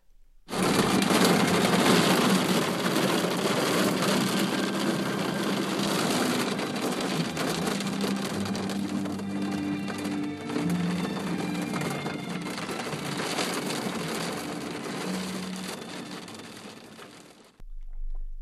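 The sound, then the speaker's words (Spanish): Dense, steady rattle of hail and heavy rain pelting hard surfaces on a rainy afternoon in Mexico City, with a low rumble of city traffic underneath, continuous and loud for about seventeen seconds before cutting off abruptly. “Una tarde, una tarde lluviosa en la Ciudad de México que suena a granizo.”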